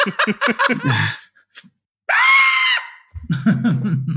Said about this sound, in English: do a really good scream